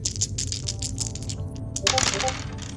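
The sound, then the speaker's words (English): Dice rolled for a tabletop role-playing game clatter across a hard tabletop in a quick run of bright, sharp clicks, ending in a louder burst of tumbling and rattling, landing on a natural one, with no one speaking. “Oh dear God, the dice are not liking you today.”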